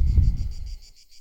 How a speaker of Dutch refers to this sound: eventjes de cicades zijn werk laten doen.